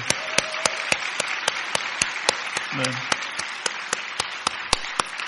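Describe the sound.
A church crowd applauds steadily for several seconds for the standing youth group teachers, a dense wash of many hands clapping with sharper individual claps punctuating it at a regular pace; a brief murmur of voices rises underneath midway.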